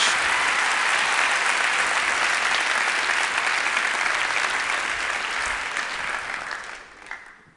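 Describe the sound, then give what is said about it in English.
A loud, sustained round of applause from an audience of friends, dense steady clapping that holds for several seconds before tapering off at the end. “These all belong to you, along with a big round of applause from all your friends.”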